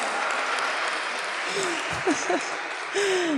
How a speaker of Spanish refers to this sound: Bueno, un aplauso para todos.